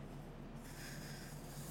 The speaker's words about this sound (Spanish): Así que lo, lo, ponemos en esta posición y mientras nosotros vamos tratando de girar la botella o el corcho, lo que se le haga más fácil, ella misma va expulsando el corcho y yo voy aguantando